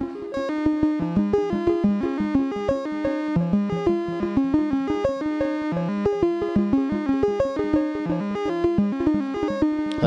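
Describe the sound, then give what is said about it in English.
A gritty, distorted synth sequence plays a fast, steady run of repeating notes through a distortion effect left on without CV control, its harsh buzzy tone holding constant throughout with no sweeping or pulsing changes. No one speaks. “And now let's uh, just have the distortion on and not be controlled by CVU again.”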